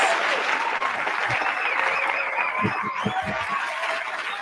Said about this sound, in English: Thank you so much. We just want to applaud you right now.